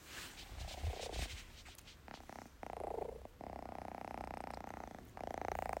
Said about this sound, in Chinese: 刚刚他呼了呼了一声哈，呼呼的哈，朋友说他呼呼的就比较喜欢你啊，那看来我还是比较受猫欢迎的啊，至少来说，估计这个猫还小哈。